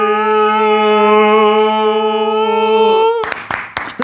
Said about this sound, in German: Und dieses Klatschen danach auch so.